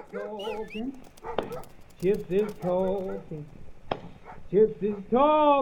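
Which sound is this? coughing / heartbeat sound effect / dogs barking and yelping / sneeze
dogs barking and yelping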